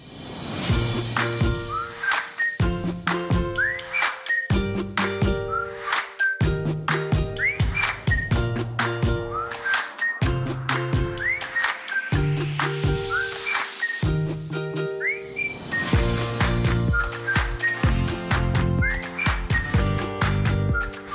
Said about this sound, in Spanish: lo primero que quiero que hagáis es que oigáis la sintonía que tenemos preparada para esta sección.